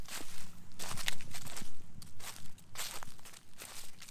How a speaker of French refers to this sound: Les feuilles jaunies de novembre tapissaient mon trajet et craquaient doucement sous mes pieds.